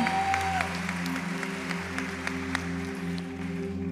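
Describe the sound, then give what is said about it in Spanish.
An audience claps steadily for a woman named Lucy, a dense wash of many hands at an even level throughout, over a low sustained hum. “Entonces le dan un aplauso a Lucy.”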